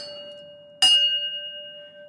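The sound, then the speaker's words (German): A single sharp strike of a typical Heidelberg tram bell rings out, bright and metallic. Its clear tones hang on and slowly fade after an earlier strike's fading ring. “Das ist eine typische Heidelberger Glocke.”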